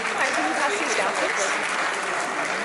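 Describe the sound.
Scattered, half-hearted applause from an audience at a Google event in San Francisco as the announcer responds awkwardly, a thin patter of clapping that stays fairly steady throughout, with faint crowd murmur and voices mixed underneath.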